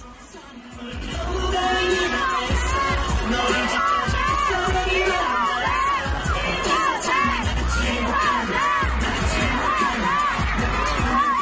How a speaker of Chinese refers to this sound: 这个录音中，我们可以听到，呃，当时呐喊的声音非常大哈。